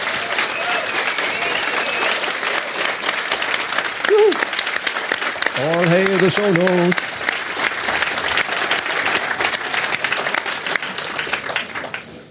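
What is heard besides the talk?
enthusiastic applause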